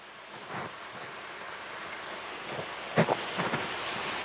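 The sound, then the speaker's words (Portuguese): Water is poured into a glass that is already full, splashing and trickling steadily as it overflows onto the floor, with a few sharper spills near the end, moderately loud, no voices. “Água no chão aí.”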